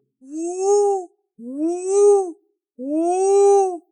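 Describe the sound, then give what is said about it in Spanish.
A voice imitates an owl with three long, loud hoots, each rising and then falling in pitch and separated by brief pauses. “El búho ululó.”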